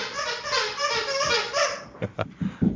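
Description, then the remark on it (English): A puppy plays with a dog toy, producing long, wavering, high-pitched squeals, followed by a few short, sharp thumps and scuffles at the end. “I've got a puppy. The the puppy with the the dog toy.”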